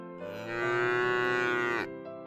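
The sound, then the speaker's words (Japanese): A single long, loud cow moo, swelling and holding steady for over a second before trailing off. No talking. “Cows, said the frog.”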